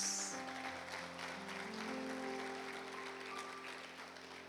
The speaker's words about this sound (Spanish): Amén. un aplauso a Jesús.